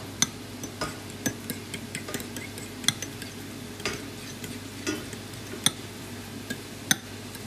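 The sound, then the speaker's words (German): Scrambled eggs being stirred in a bowl: a utensil taps and clicks against the sides in an irregular, quick rhythm, with soft swishing between hits over a low steady hum. Nobody speaks. “Einfach schön umrühren.”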